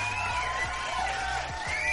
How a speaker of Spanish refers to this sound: Y pues no mames, otro pinche aplauso al pinche Memo, que es la mera liana.